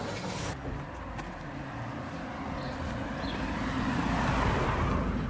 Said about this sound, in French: Et à ma fenêtre, je vois encore d'autres corps de métiers passés, notamment ces petites voitures jaunes. Et oui, pas de confinement non plus pour les postiers et les postières, et leur importance est grande dans les villages.